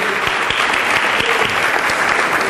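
An audience claps along in a steady, even beat to help the speaker, the loud massed hand claps falling in time with one another and continuing without pause for a few seconds.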